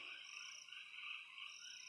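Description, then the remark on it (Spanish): A steady, continuous chorus of crickets singing on the plain of Catul in a high, shimmering drone, fairly faint and unbroken, with no voices or other sounds. “Alcanzan a escucharse los grillos que cantan en la llanura de Catul.”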